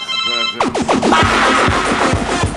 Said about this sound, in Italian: che succede? Cos'è questo ah, suono? Ah, scusate. È arrivato sms sono quelli di Fast Web che mi perseguitano.